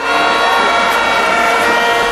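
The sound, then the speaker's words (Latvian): Many horns blown by protesters at a large demonstration in Tel Aviv, Israel, blare together in a loud, unbroken wall of overlapping brassy tones, held steadily for the whole moment with no pauses and no voices standing out. “Daudzi no protestētājiem vicināja zila-baltos Izraēlas karogus, rokās turēja dažādus plakātus un izmantoja taures.”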